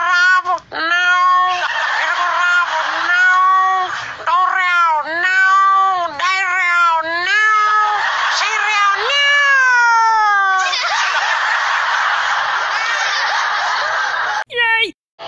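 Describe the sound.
A voice imitates a male cat courting a female cat, meowing and caterwauling: a continuous run of loud, wavering yowls with rising and falling pitch, breaking into a rough, snickering stretch near the end.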